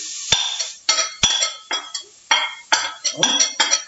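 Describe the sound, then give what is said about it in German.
Onions sizzle in a hot pot without fat in loud, crackling bursts that come and go, with a few sharp metallic clinks from a utensil against the pan. Nobody speaks. “Ja, weil der so brutzelt.”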